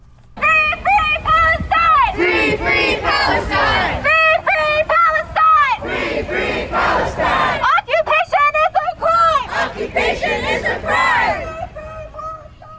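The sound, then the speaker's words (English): A large protest crowd of hundreds chants loudly in unison at the corner of Ala Moana and Atkinson on Oahu on a Sunday afternoon, many raised voices overlapping in rhythmic bursts with brief pauses between phrases, shouting and cheering blended in. “Citizens are protesting across the globe, including here on Oahu.”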